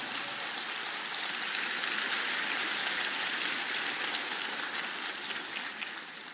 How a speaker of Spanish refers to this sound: Si quieres dar un aplauso, vamos a dar un aplauso, ¿ya?